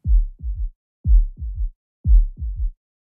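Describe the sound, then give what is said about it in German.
A heartbeat heard through a stethoscope: three steady lub-dub beats, about one per second, deep and muffled with low thuds, clear, with no voices. “setzte das eine Ende auf den Brustbereich auf, legte das Ohr an das andere und hörte zu meinem Erstaunen und zu meiner Freude die Herzschläge weit reiner und deutlicher, als ich sie jemals beim direkten Auflegen des Ohrs vernommen hatte.”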